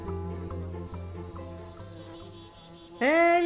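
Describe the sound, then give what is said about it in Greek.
Two bees buzz in a cool forest, flying here and there in a steady, low drone that wavers slightly as they move about, then a sudden louder, rising buzz bursts in at the end. “Την ίδια ώρα, σε ένα όμορφο δροσερό δάσος, δύο μέλισσες πετούν εδώ και εκεί, φωνάζοντας αναστατωμένες.”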